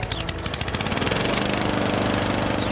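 A lawn mower engine runs steadily while mowing a lawn, its rapid mechanical chugging rising after a sputtering start into a loud, continuous droning rattle with no voices.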